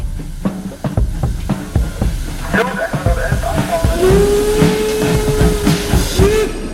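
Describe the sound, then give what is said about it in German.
A steam locomotive chuffs and clanks with a steady hiss, then a long sustained whistle sounds for a couple of seconds near the end; faint voices mingle in the background. “Damals rollten so nach und nach die Dampfzüge aufs Abstellgleis.”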